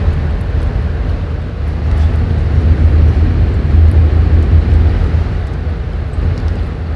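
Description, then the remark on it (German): A steady, loud low rumble of road noise from inside a moving car driving to Bern, a few minutes after crossing the border, a constant engine and tire drone that holds evenly for the whole stretch with no voices. “Ich bin gerade in äh, im Auto unterwegs nach Bern und vor ein paar Minuten über die Grenze”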